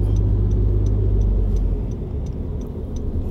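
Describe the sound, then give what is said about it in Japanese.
A car rumbles past, nearly colliding, its deep engine and road noise loud for a moment before easing off, while a faint steady ticking carries on above it. No one speaks. “今車にぶつかりそうになりましたねどしどしうるさいね、うんと直前までウインカー出さない人って何なんだろう本当腹立つなあ”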